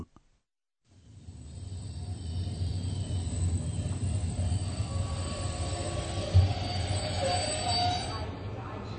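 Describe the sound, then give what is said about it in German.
A train rumbles steadily as it arrives at Bahnhof Zoo station in Berlin, Germany, its low mechanical drone filling the scene, with faint high wheel squeals and a brief clunk partway through as it rolls along. “ዛሬ አንድሪያስና ኤክስ እንዴት ጾ ጾ ባቡር ጣቢያ እንደደረሱ ታደምጣላችሁ።”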